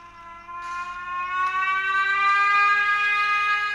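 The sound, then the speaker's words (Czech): A model locomotive of one of the trains on the Bohumínská modelová železnice club's layout, still under construction, at the corner of Vrchlického and Štefánikova streets, gives one long, continuous hoot, a reedy harmonic tone that swells louder after the first half second and holds steady, drifting slightly upward in pitch, with no voices. “To, co nám zahoukalo, je mašinka zatím jedné soupravy nachystané, no.”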